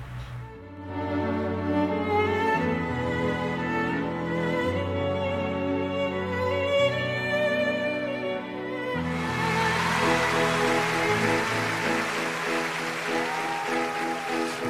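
Instrumental opening of a pop ballad: slow, sustained chords ring out steadily, then the arrangement swells fuller and brighter partway through, with no singing yet.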